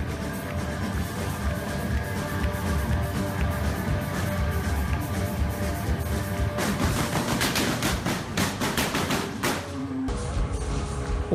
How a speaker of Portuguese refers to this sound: concerto foi interrompido por uma chuva de tiros e o pânico instalou-se.